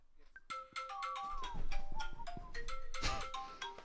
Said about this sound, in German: Ah, jetzt callt er dich.